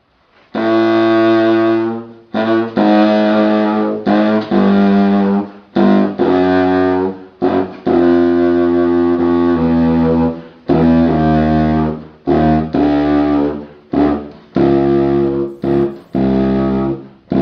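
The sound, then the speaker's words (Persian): A subcontrabass saxophone, the lowest member of the saxophone family, plays a run of deep, buzzy, reedy notes, loud and sustained, in phrases broken by short pauses, with no one talking. “حالا رنج صوتی صدای در واقع ساکسفون ساب کنترباس رو میشنویم یا ساب کنترباس که بمترین ساکسفونی هست که توی خانواده ساکسفون ها هست رنج صوتی این ساز رو میشنویم و میبینیم که چقدر نوت های بمی رو میتونه این ساز اجرا کنه”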